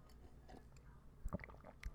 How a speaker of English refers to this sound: Since everybody likes it so much when I do that, especially if they got earbuds in, uh, you can really hear it really clearly. And nobody likes me gulping my coffee into their ear.